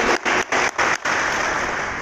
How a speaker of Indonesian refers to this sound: Ayo dong, kalau tepuk tangan jangan ragu-ragu.